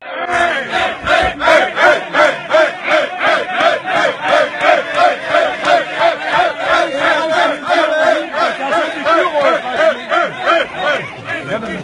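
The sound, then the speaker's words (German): A crowd of about 100 residents on the edge of Klausnitz shouts and chants together at a bus bringing refugees to an asylum shelter, in loud, rhythmic bursts, many voices overlapping in an aggressive, hostile roar that pulses steadily throughout. “Dort wurden sie von ca. 100 Anwohnern empfangen und das klang dann so.”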